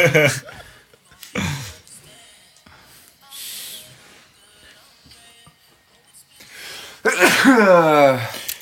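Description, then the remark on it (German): A loud sneeze bursts out near the end after a sharp intake of breath, preceded by a few seconds of quieter shuffling and muffled background sounds. “Gesundheit.”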